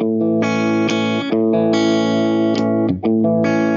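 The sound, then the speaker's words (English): Electric guitar played with a split-coil pickup, loud sustained distorted chords with dense harmonics, changing every half second or so with brief pick attacks and a short dip near the end. “When you split the coil, it kind of, uh, I'm not sure if it's that clear with this setting, but it, let's hear.”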